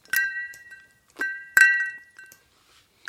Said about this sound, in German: Hab, das ist ein Glas mit Eiswürfeln mit drin. Mit Eiswürfel drin, genau. Genau, die Flüssigkeit besteht aus äh, zu gleichen Teilen Gin, Campari und Wermut.